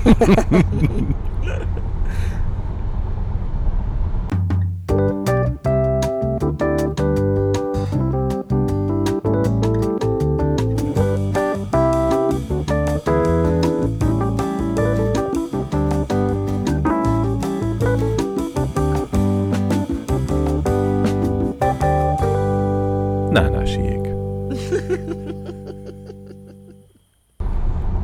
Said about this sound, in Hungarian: Menjen a jingle. Hogy mi? Menjen a jingle. A jingle.